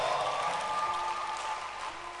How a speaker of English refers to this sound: Keep clapping your hands for the Lord.